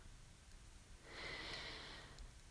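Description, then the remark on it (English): A single slow, airy deep breath drawn by a person settling in bed, soft and hushed against near silence, with no talking. “Let's take a couple of deep breaths.”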